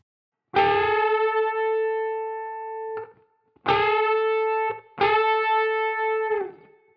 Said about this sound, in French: Et eh bien voilà, c'est ça un double stops.